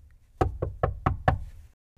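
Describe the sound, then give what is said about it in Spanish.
Five sharp knocks on a wooden door in a quick, even rhythm, clear, followed by a brief silence: Little Red Riding Hood knocking at her grandmother's door in the fairy tale. “Luego cerró la puerta y fue a acostarse en la cama de la abuela, esperando a Caperucita Roja, la que algún tiempo después llamó a la puerta.”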